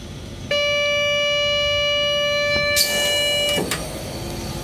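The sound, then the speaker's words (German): A train driver's vigilance device (SIFA) warning tone, tested with a button during preparation of the train, sounds as a steady, loud electronic buzz for about three seconds over a low cab rumble, ending with a sharp hiss and a click. “Bin also einmal schon drum herum gegangen, habe mir alle Führerstände angeguckt, Jetzt muss ich hier noch die SIFA testen.”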